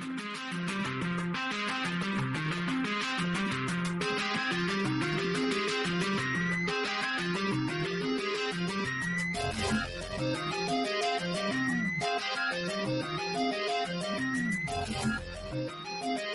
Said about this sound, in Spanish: Genial la, la, música, cada vez que la oigo me gusta más.